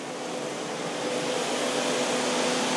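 A steady mechanical hum with a broad whooshing roar and faint tonal drone from a red hydroelectric generator spinning inside a turbine house beside a big pipe, holding constant for the whole stretch with no voices.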